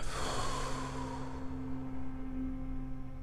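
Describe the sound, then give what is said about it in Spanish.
During a guided breathing exercise, after the breath is held, a single long breath is pushed out through the mouth, a soft airy rush that fades gradually over a couple of seconds, with a faint steady hum underneath and no talking. “Retén la respiración 3, 2, 1. Por la boca exhala.”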